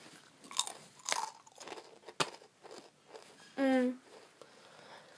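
crunching on potato chips

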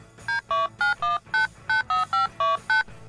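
telephone number being dialed

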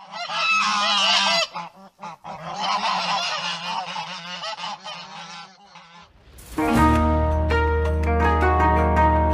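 geese honking

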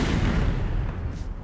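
gunshot

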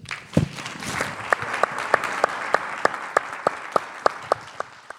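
audience applause

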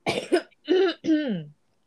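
coughing

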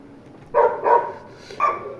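dogs barking

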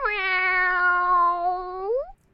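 cat meowing

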